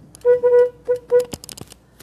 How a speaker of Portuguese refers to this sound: Uma buzinadinha aqui, clássica.